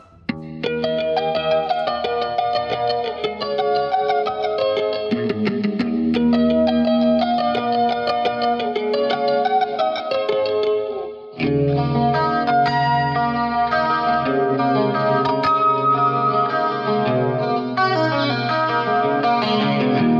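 A gentle rock intro on a shimmering, chorus-drenched electric guitar, ringing harmonics layered in a steady, flowing pattern, with a brief pause partway through before the passage resumes, no voices.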